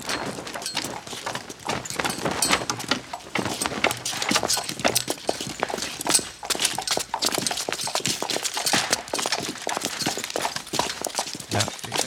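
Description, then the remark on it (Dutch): Rhythmic clip-clop of horse hooves, made as foley with coconut shells, trots steadily past, sharp hollow knocks repeating throughout with no voices. “Het is ongelooflijk, want ik heb echt het gevoel dat ik gewoon naar paarden zit te luisteren ja. en die voorbij komen.”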